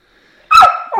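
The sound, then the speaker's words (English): A teething puppy lets out a loud, sharp bark after a moment of near silence, followed quickly by a second, shorter yappy bark. No one speaks. “He's just an innocent teething puppy that is.”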